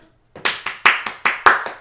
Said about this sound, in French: Là, c'est le moment de m'applaudir.